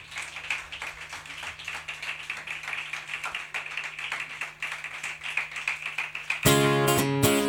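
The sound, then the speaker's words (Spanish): A crowd at a band's live show applauds steadily for about six seconds, a dense patter of many overlapping claps, then it cuts abruptly to loud, sustained tonal music. “Venga, con este aplauso retoman...”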